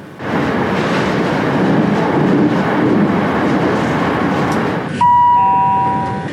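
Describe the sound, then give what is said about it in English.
A train rushes through a tunnel with a loud, steady, enveloping roaring rumble, then a sustained two-note horn-like tone sounds near the end. No talking. “The train went through a tunnel.”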